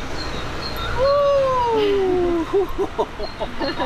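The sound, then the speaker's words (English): A small eleven-week-old puppy gives one drawn-out, high whimper that slowly falls in pitch, followed by a few brief broken whines, over steady outdoor background noise. “That dog was so small you know, I love animals and I love dogs, but I don't fancy a tiny little dog.”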